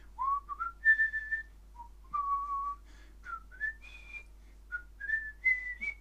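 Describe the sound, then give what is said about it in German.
A person whistles the adventure film theme melody alone, a series of clear, sustained pitched notes rising and stepping in a jaunty phrase, moderately loud with short pauses between phrases. “Kennt ihr diese Melodie?”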